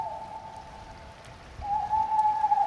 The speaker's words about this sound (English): Did that seem a little off to you? The owl? Not particularly.